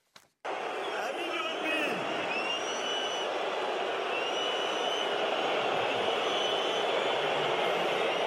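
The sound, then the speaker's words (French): A huge stadium crowd at the Rugby World Cup in France roars continuously in disapproval at the entrance and speech of French President Emmanuel Macron, with shrill whistles cutting through and booing beneath, starting abruptly after a brief pause and staying loud and dense throughout. “Apparemment, le chef de l'État a fait son entrée sous les sifflets.”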